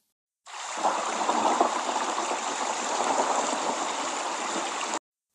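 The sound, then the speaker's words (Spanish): A steady, loud rush of churning sea water roars without a break for several seconds, dense, like heavy waves surging in a storm. No voices are heard. “El mar comenzó a rugir con fuerza y el barco empezó a dar tumbos, hasta que finalmente logró partirlo y mandarlo al fondo del mar.”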